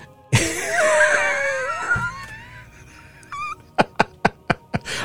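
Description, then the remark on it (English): A single voice mimics the crowd in the biblical account of Stephen yelling at the top of their voices and covering their ears, with a loud, strained, wavering wail that trails off, then a quick run of five or six sharp, clipped bursts. “They they yelled at the top of their voices, covered their ears, right?”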